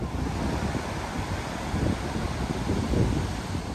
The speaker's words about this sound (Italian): Si vede che c'è vento abbastanza.